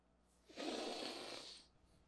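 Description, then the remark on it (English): A person imitates someone sniffing, with one loud, breathy nasal inhale lasting just over a second, rising abruptly and then fading, with no talking around it. “He was sniffing him like that.”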